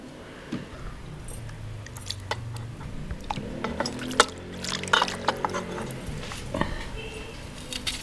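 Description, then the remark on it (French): Tap water, collected from the taps four days earlier and used for washing vegetables, is poured from a container, splashing unevenly, with scattered clinks and knocks of glass or metal throughout and low background noise. “C'est le des robinets que j'avais recueilli, là. Ça fait quatrième jour.”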